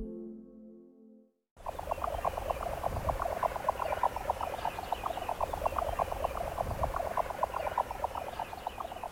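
A jack snipe's display call: a rapid, steady train of hollow, knocking pulses repeating like a galloping rhythm, continuing without pause over a low background rumble after a brief quiet start.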